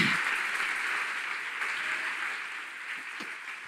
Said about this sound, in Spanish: Yo quiero solo hablar con los que tienen visión aquí. Y quiero que los que tienen visión le den un aplauso fuerte a Dios ahora.